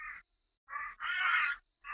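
A bird flying overhead gives a run of harsh, raspy cawing calls, about four loud bursts with short gaps between them, the third one drawn out longest. No one speaks.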